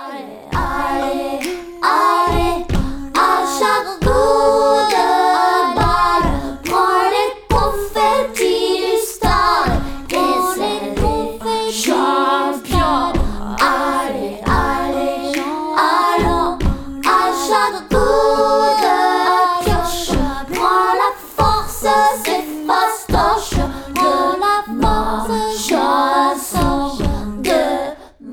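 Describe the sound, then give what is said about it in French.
Layered a cappella singing by a female singer in close harmony, arranged as a canon with many overlaid harmonies. She accompanies herself only with crisp finger snaps and heavy foot stomps keeping a steady beat, loud with no instruments. “et dans laquelle elle ne s'accompagne qu'avec ses pieds et des claquements de doigts.”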